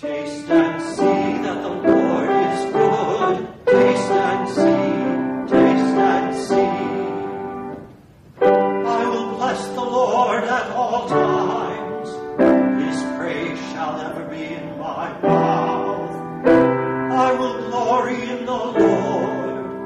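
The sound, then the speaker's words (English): A choir sings a setting of Psalm 34 in full harmony, sustained chords moving in steady phrases, with a brief breath-like pause partway through before the voices continue, fairly loud. “The first portion of his setting of Psalm 34 sounds like this.”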